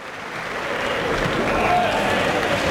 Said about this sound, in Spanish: Y Daniel Luque a los medios a saludar y recibir esa ovación en el brindis. La plaza de Dax entregada a Daniel Luque.